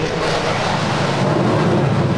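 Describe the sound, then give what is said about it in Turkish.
A loud, steady roar of a Solo Türk fighter jet passing very low overhead during an aerial display over Samsun, heard from outside, a dense rushing thunder that fills the whole moment without fading. No voices are heard. “Evet arkadaşlar bu duyduğunuz ses dışarıdan gelen bu yoğun ses şu anda Solo Türk muhteşem bir gösteri sergiliyor Samsun semalarında.”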